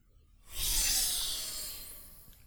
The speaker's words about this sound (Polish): Kapsuła otworzyła się z charakterystycznym sykiem.